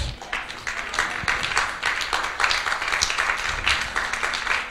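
audience applause

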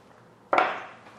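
speaker drinking water

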